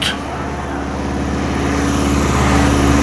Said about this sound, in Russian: Осип, как красиво летит! Это, Лиза, самолет «Фарман», а управляет им сам Уточкин.